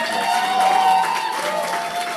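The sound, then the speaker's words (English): An audience stands and applauds a pastor steadily for a couple of seconds, a dense, loud wash of clapping with some crowd cheering and a sustained tone humming underneath. “Yeah, yeah, please, please stand and give him a round of”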